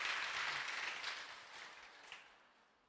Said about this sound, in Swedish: Tack så mycket. Det är värt att ge Herren en applåd för det.